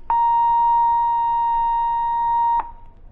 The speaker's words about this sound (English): That is 1,000 cycles, or 1,000 vibrations per second, stripped of all harmonics.